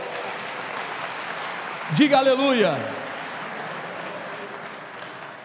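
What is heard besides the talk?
audience applauding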